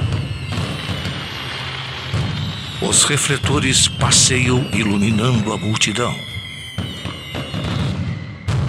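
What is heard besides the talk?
fireworks exploding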